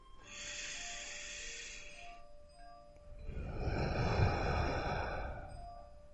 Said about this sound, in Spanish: Desde una postura cómoda, con los ojos cerrados y las manos apoyadas sobre tu regazo, vamos a tomar tres inspiraciones profundas. Segunda respiración.